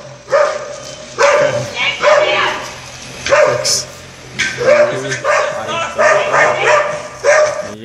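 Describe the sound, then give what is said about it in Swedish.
A dog attacking a man on a street barks aggressively and repeatedly, loud, in a rapid series of sharp, harsh bursts that barely pause for several seconds. “Men det är ju en hund som attackerar ja. också, det är därför det är massa voffande.”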